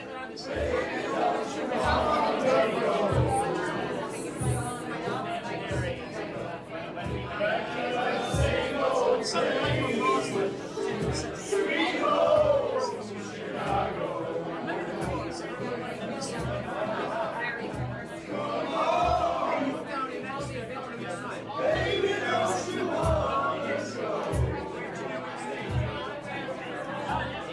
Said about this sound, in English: So the the singing that you just heard at the end there was led by a contingent of earth scientists from Chicago University. Um, they invited anyone who had ever been at Chicago University to join in with the song.